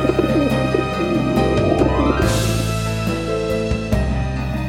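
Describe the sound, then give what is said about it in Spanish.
A dove coos softly in a few low, throaty phrases, set against a steady bed of sustained tonal sound, with no one speaking. “la paloma regresó al arca porque no encontró ningún lugar donde descansar, pues la tierra todavía estaba cubierta de agua.”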